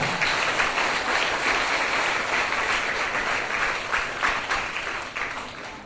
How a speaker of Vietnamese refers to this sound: và như vậy các cháu đã hiểu rất đúng câu chuyện và trả lời rất là hay các cháu hãy thưởng mình bằng một tràng pháo tay